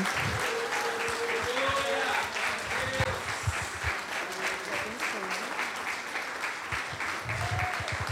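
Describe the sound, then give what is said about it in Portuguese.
An audience claps steadily in praise to the Lord for several seconds, a dense, continuous wash of many hands with voices faintly audible underneath, the applause staying loud and even throughout. “Deus abençoe e as palmas louvam ao Senhor.”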